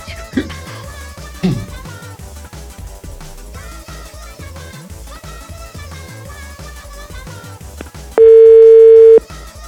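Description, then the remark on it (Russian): Music plays for several seconds, then cuts to a loud, steady telephone dial tone, a single unbroken hum lasting just over a second at the end, as someone dials a number to place a phone call. “Я правильно набираю?”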